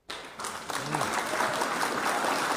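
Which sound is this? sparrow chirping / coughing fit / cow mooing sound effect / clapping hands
clapping hands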